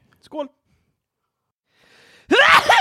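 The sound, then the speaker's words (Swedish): A brief breathy catch, a pause, then a quick, dainty sneeze that bursts out with a squeaky, high-pitched edge. “Jag nös lite graciöst bara.”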